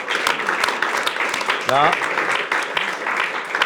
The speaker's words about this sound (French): Et alors, le cadeau, c'est que, eh bien, il a fait un portrait. Cette fois, ce n'est pas une caricature de toi. pendant l'émission, la voilà. Et donc, on peut l'applaudir très fort.